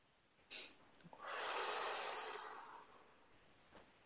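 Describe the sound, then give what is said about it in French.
A brief airy sniff, then one long deep breath, a soft hissing rush of air that swells, holds for over a second, and slowly fades, with no talking. “Alors, une respiration.”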